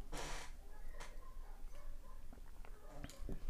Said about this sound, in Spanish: El ring, o sea, el espacio donde estamos peleando, y una vez más tomaré un sorbo de café ASMR.